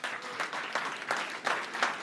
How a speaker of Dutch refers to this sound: En het is gelukt. Applaus voor mezelf!